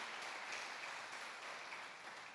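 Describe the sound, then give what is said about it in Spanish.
A church audience applauding the Lord during a sermon, a dense, steady wash of many hands clapping that holds at an even, moderate level for a couple of seconds, with no voices rising above it. “En el nombre de Jesús, dale un aplauso al Señor y decirle, amén.”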